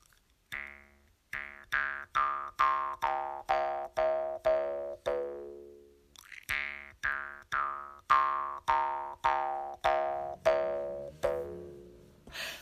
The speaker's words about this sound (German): Da hört man schön die Obertöne heraus. Also der Grundton ist immer der gleiche, der tiefe, und dann spielt der Oberton von hoch nach tief. Oder kann man natürlich auch umgekehrt machen, indem man eben die Mundhöhle vergrößert oder verkleinert.